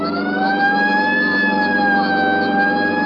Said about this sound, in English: Right, I'll hit the siren. You get the light.